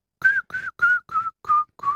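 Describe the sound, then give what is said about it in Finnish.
Six short notes whistled by a person in a steady, evenly spaced rhythm, each carrying an audible breathy hiss around the tone, moderately loud with no talking. “Niin siinä tulee se, tuo suhina, vihellyksen suhina tulee mukaan.”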